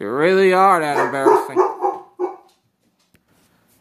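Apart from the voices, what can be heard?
dog barking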